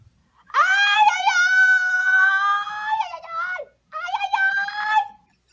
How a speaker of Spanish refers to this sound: Rápidamente Calimán despoja de sus ataduras al pobre muchacho, que se queja dolorosamente.